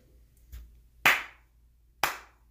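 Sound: slow clap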